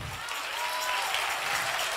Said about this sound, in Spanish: Ese es el aplauso.